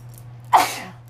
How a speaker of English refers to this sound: Ah, I'm gonna sneeze one more time.